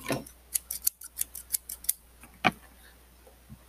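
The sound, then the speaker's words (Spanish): Scissors snip repeatedly while doing homework, about eight quick crisp cuts in an uneven rhythm, followed by a sharper click and a faint tap, with no talking. “Después utilizo la tijera.”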